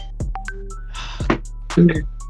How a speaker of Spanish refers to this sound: Nota mental, bloquear los mensajes del WhatsApp para que no me llegue nada.